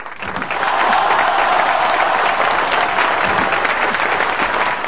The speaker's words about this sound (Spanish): Va otro aplauso, Maxi.